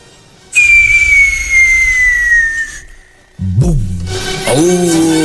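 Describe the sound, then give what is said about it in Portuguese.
A firework rocket set off outside a prison with a high wall shrieks with a loud, sustained high whistle that slowly glides downward for about two seconds, then cuts off. After a short pause, a burst of loud, rough noise follows. “Você é bom pra soltar, hein? Foguete.”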